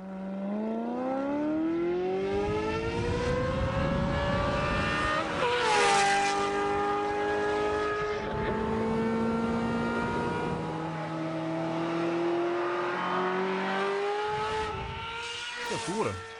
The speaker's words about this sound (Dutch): Jij zegt hier V8, uh, eh, zit je mij te denken? 8, 8, Oké, oké. V8. Dit is een... Lekker, hè? Dit is een Ferrari 355 F1.